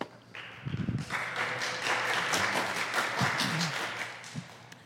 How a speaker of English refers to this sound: And so, right now, where you're sitting, um, give her a round of applause and welcome her to the microphone.